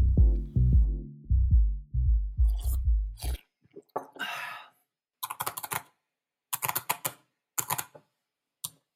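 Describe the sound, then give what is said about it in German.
A drawn-out slurp of coffee after some low rhythmic gulping sounds, followed by bursts of quick keyboard typing, made by a design researcher during his daily work at the Design Research Lab of the Berlin University of the Arts. No one speaks. “was ähm, ihr gehört habt, ist mein Schlürfen mit dem Kaffee und mein Tippen auf der Tastatur.”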